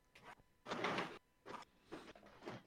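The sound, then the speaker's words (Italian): A window being opened, with a few short bursts of scraping and sliding, one longer rattling slide in the middle, then quieter knocks as it settles. “Aspetta, apro un attimo la finestra, voglio vedere qualcosa.”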